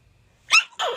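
sneeze

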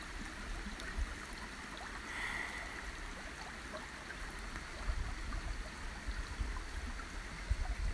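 small stream flowing

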